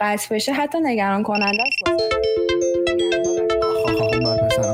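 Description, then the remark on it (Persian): A mobile phone ringtone from an incoming call plays a bright, repeating melodic pattern, starting right after a man speaking and continuing steadily to the end. “من واقعا از بیننده های محترم عذر میخوام یکی بهم زنگ زد صدای گوشی من اومد توی پادکست”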